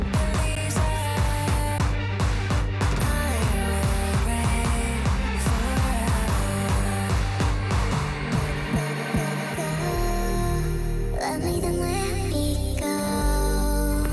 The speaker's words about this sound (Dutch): Ze hebben samen een soort haunting liedje gemaakt,